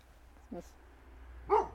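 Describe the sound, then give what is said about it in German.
A dog, addressed as Racker, barks twice, about a second apart, with short, sharp barks over a low background hum; the second bark is louder. “Können Sie mir da nicht helfen? Racker, Schluss jetzt.”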